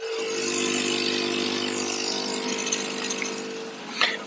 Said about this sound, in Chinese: 好，那我这个冲氧的机器一直开着，有一个马达，大家可以听听这个声音。